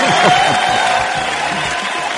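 audience applause

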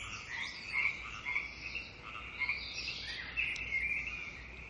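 frogs croaking

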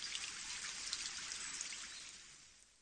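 rain falling

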